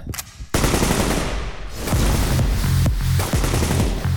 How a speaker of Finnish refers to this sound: Iskemme Seppäsen kanssa muutamat laukaukset, jonka jälkeen rynkyssä oleva kasilaite vilkkuu vihreänä. Osuma.